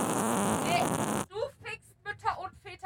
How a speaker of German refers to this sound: Boah, die stinken auch, ne? Ich konnte die ganze Zeit nicht furzen.